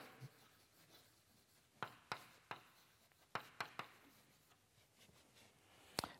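Someone writes Angus Deaton's name on a board, producing a quick series of sharp, scratchy taps and strokes in uneven bursts, with a faint background hum and no talking.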